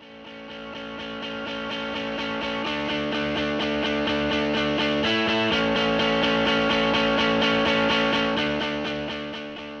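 Upbeat instrumental music with distorted, effects-laden guitar tones playing a steady rhythmic pattern, swelling in from the start and holding loud and full before easing back near the end, with no voices.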